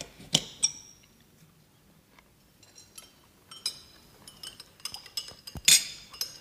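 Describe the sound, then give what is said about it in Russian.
A spoon clinks against a soup bowl several times at irregular intervals as a man eats soup at a table, fairly quiet, with soft scraping between the sharper taps and no voices. “Удалов был голоден, потому не мешкая уселся за стол, взял ложку и начал есть суп.”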